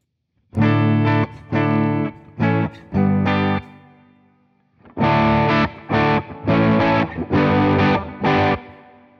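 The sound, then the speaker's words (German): Electric guitar through a Tube Screamer overdrive pedal, gain set moderately at about 3.1, plays two bursts of loud, gritty chords, each a choppy rhythmic series of strummed hits separated by a short pause, with a rough, crunchy harmonic texture and no talking. “Recht moderat, ja. ja. Ja, der bricht aber schon auf dann, ne?”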